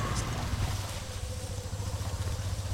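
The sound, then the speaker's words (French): A motorcycle engine runs steadily throughout, a continuous low rumbling drone with a slight pulsing, moderately loud, with no voices over it, as nut gatherers in Bolivia ride back to the village carrying large canvas sacks on their backs. “Puis, ils les ramènent au village dans de grands sacs en toile qu'ils transportent sur le dos à moto.”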